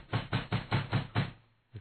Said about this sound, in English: Officer, knock on the door. Yes, sir, I will knock on this door. okay, I'm going to knock on this door. I'll knock even harder.